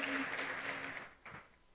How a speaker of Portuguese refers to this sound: Se você crer, dê um aplauso bem forte ao Messias.